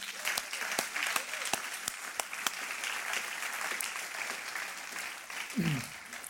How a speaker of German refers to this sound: Hey, danke, habt ihr euch diese Fragen gestellt, seid ihr auf die Bühne gekommen, geben wir ihnen noch einen Applaus